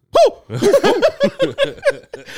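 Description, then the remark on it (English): A voice imitates the startled yelp of someone using a bidet in a bathroom in Japan: one loud, high cry followed by a quick run of shorter, squealing whoops that sound almost like laughter. “when you're traveling to Japan with somebody, it's always funny to know when somebody is using the bidet.”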